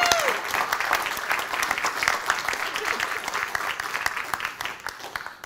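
A church crowd claps loudly and steadily for several seconds for the speaker's wife, a dense wash of many hands, with no talking over it.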